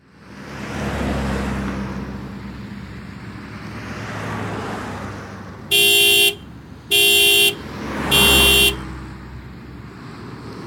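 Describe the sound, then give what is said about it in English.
Three loud, evenly spaced car horn honks, each about half a second long, blare over the low rumble of passing road traffic. “you honk when you get here.”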